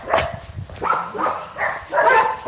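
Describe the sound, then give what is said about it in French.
Several dogs bark and whimper together in overlapping, whiny bursts, a fairly loud canine chorus with no one talking. “La chorale des toutous.”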